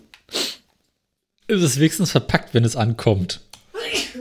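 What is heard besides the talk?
sneezing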